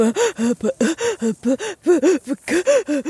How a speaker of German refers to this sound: Weil das ist dieses tiefe, dieses tiefe Einatmen. Das hat so ein bisschen, als ob du Atemnot hast. Das gehört immer dazu.